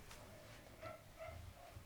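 Dogs bark faintly, giving three short, high yappy barks at a steady pace against a quiet background, with no one talking.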